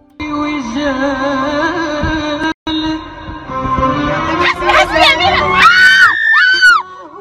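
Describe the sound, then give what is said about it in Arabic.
Loud, continuous screaming in a clip said to show a car accident, with sharp high-pitched wails rising and falling, growing more frantic toward the end, with a brief cut of silence partway through and some shouting voices mixed in. “أنا للأمانة سمعت صراخ ما شفت حادث سيارة الله وكيلكم حادث ضوضائي”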